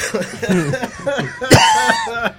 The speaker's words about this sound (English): Yeah. that cough will go away.